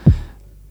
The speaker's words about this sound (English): And then I could send that information to another program that transformed the MIDI CC into a MIDI note. Mm-hmm. And then I can use this note to play the kick drum. So, and it sounds like this.